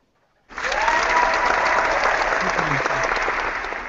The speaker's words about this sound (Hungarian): taps effektek nyomjál